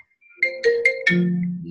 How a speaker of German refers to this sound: Da sieht man mal, welche, ähm, wie interessanter Beruf des Wirtschaftsberaters ist, da äh, zwischendurch immer mal wieder das Telefon klingelt, ja.